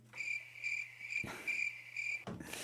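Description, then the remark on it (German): A cricket chirps in a steady, rhythmic pattern of short trills at a moderate level, interrupted twice by brief dull knocks, with no voices present. “Bisschen spät reagiert mit dem Grillenzirpen, passt aber ganz gut, so lustig war es nicht.”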